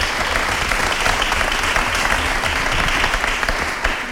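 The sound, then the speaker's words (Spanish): Steady audience applause for a man in the corner who makes the event's videos for social media fills the whole stretch, a dense wash of many hands clapping at an even, sustained loudness with no voices standing out above it. “Y aplauso también para este hombre que está aquí en la esquina”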